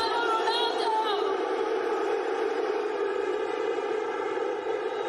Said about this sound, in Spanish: Gritan el sí de Cristiano Ronaldo.